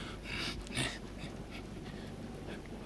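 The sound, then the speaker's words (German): A frightened dog, hiding under a bookcase as a thunderstorm moves away, pants in quick, breathy huffs, fairly quiet, with a steady uneven rhythm of short airy bursts and no voices. “Ich kann mich wieder atmen hören.”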